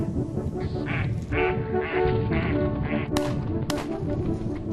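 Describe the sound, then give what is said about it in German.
A flock of ducks, the quarry of hunters, quacks steadily in rapid, overlapping calls, fairly loud, with a couple of sharper, brighter squawks near the end over a dense, continuous background of bird noise. “Im Visier Enten.”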